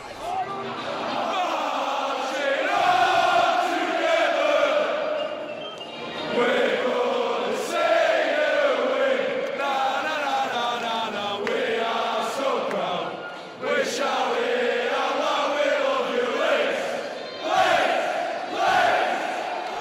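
A large crowd of football supporters sings a chant in unison, a loud, sustained, melodic roar with rhythmic swells that keeps going steadily for the whole stretch.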